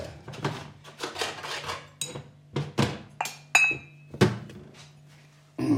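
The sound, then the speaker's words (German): A cup of morning coffee being set down amid a run of ceramic clinks and knocks, with a few brighter ringing taps standing out, then a soft rustle at the very end. No one speaks. “So, jetzt aber erstmal der Kaffee am Morgen. So. Dann die Tasse.”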